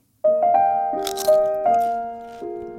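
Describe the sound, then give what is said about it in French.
A few sharp, crackly crunches like a bite into crisp food, clustered in the middle, sitting over sustained synth-like musical tones that step between notes. No one speaks. “Croustille, hein”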